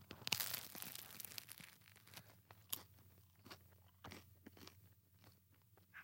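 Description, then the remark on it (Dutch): A loud crunch as someone bites into crusty bread, followed by several seconds of sharp crackling chews and smaller crunches, with no talking. “Ik ga kijken of je dat hoort ook.”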